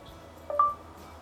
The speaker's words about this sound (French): Parler après le bip.